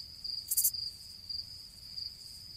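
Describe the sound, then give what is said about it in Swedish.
Crickets kept in a box under a terrarium chirp in a steady, high-pitched drone with faint pulsing, like a dense chorus as it gets dark, with a brief hissy burst near the start and no voices. “Och de här jävla syrsorna bodde ju i en låda under terrariet så de hade ju, ja, alla vet väl hur syrsor låter ungefär, det låter ju satan när det liksom mörknar Ja, ja men fatta att försöka sova till det här”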